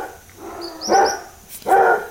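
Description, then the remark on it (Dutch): Dogs bark twice in quick succession, two loud, full barks about a second apart with a faint high yip between them, with no talking. “de honden hebben weer iets.”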